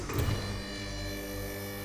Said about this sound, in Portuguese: A porta fez um barulho alto antes de abrir e se arrastou para a esquerda.